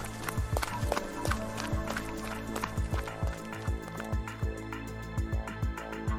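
Running footsteps thud quickly and steadily outdoors, about two or three strides a second, fairly close, over a low, constant background tone.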